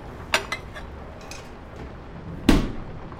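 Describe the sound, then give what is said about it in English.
Crockery clinks a few times as someone makes a cream tea: two quick light taps near the start, then a louder clatter of cups and dishes later, with quiet background noise between. “Ooh, I'll make you a cream tea. I have homemade scones.”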